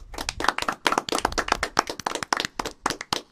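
A burst of quick, dense hand clapping from a small group, steady throughout with no talking over it.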